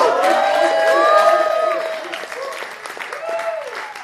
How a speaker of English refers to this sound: That is an appropriate place for a gratuitous round of applause.